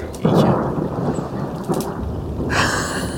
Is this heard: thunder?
yes